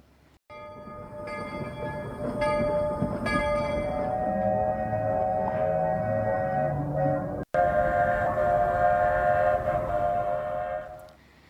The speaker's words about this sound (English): And that is the train whistle of the Magic Kingdom trains.